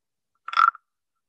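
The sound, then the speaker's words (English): A single short rasping croak from a small wooden frog instrument, scraped once. The ratchety, clicking rattle lasts about a third of a second, with silence around it and no voices. “Anyways, okay, what I grabbed was these wooden frogs. They're little sound frogs.”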